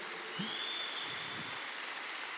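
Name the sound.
audience clapping hands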